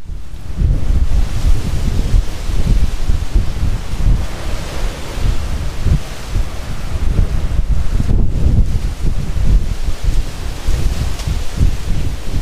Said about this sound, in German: Das ist der starke, stetig wehende, kühle Nordwind aus Portugal.